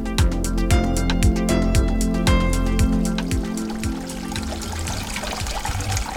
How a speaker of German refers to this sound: Ein herrlich verwunschener Garten in Berlin-Althon-Schönhausen. Aus einem Keramikfrosch plätschert Wasser in einen Teich. Am Rand sind Gemüse und Blumenbeete.